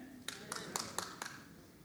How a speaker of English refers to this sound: No, good. Clap for scripture. That's fantastic.